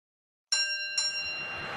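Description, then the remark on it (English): An alarm sound effect played to mark a Bills win and cover: two bright, metallic bell-like strikes about half a second apart, each ringing with high overlapping tones that fade slowly. No one speaks. “So I will play that alarm right now, and I will play it every time the Bills win and cover until we're left with no listeners at all.”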